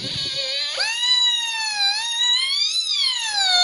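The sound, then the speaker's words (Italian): A cheaply built homemade electronic theremin-like instrument, not a true theremin, played live, gives a buzzy harmonic-rich drone sliding smoothly up and down in pitch, steady and fairly loud, with no talking over it. “Sì, sì, si sente benissimo e come si sente dal suono, questo non solo è molto diverso dal suono al quale siamo abituati appunto del termine, ma c'è anche da dire che il non è un vero e proprio theremin”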